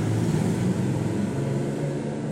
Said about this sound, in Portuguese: Motos passando por aqui.